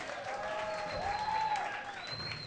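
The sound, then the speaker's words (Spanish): A crowd applauds steadily throughout, a dense wash of clapping at moderate volume, with a few high whistles rising and falling over it. “Un aplauso”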